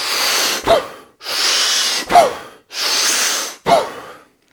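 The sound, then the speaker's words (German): Loud breathwork breathing by a person lying down in the dark, with music playing: three forceful breath cycles in quick succession, each a long rushing inhale ending in a sharp, explosive exhale, with no talking. “Lichtmusik kommt, du liegst da, es ist irgendwie dunkel, du fängst an zu atmen.”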